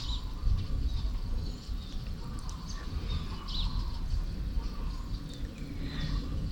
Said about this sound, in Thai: ไก่ก็ร้องส่งสัญญาณรุ่งอรุณอยู่กับธรรมชาตินะซึมซับธรรมชาตินะสบายใจฟังเสียงนกใจผ่อนคลายนะไม่กระตุ้น ความโลภความโกรธความหลงนะเป็นธรรมชาติสบายๆ